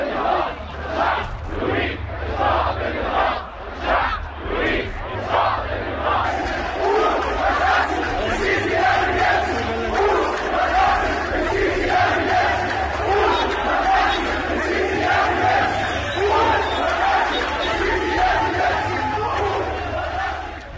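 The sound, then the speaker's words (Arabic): A large crowd of protesters in Tahrir Square during the January 25 revolution chants slogans such as "Down with Hosni Mubarak" in loud, rhythmic unison, voices surging together in repeated bursts, then merging into a dense, continuous roar of shouting. “عشر سنوات مرت على دوي هتافات ثورة الخامس والعشرين من يناير في ميدان التحرير”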